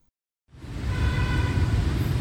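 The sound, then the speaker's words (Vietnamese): City street traffic ambience on Yết Kiêu Street, Hanoi, Vietnam, in the morning, fades in after a brief silence: a steady, fairly loud rumble of passing vehicles and engines, with a faint motor whine in the mix and no voices. “Thưa quý vị, có mặt trên phố Yết Kiêu, Hà Nội trong buổi sáng hôm nay, chúng tôi ghi nhận tình trạng ô tô xe máy đỗ tràn lan trên vỉa hè, dù là điểm trông giữ xe được Sở Giao thông Vận tải cấp phép hay do người dân, các công ty, công sở tự ý dừng đỗ.”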